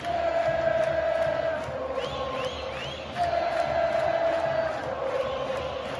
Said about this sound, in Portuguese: Eu não vou saber explicar aqui para vocês, mas a torcida começou a gritar aqui: Mengo, Mengo, Mengo.